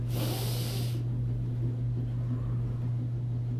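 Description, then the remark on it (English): A group takes one deep, sharp inhale through their noses during a guided breathing exercise, a loud airy rush lasting about a second, then fades to quiet with a steady low hum underneath. “In through our nose.”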